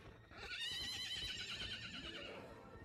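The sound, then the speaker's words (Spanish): A black horse running over stones at night lets out a loud, quavering whinny that stretches for about two seconds, with a low rumble of its hooves underneath and no voices. “De pronto, se escuchó un correr de caballo que relinchaba.”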